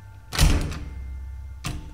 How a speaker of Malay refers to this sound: Tiba-tiba sekali lagi bunyi pintu yang macam orang nak buka tu Terjadi lagi sekali